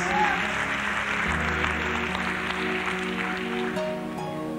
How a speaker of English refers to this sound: Clap your hands if you understand what I'm talking about.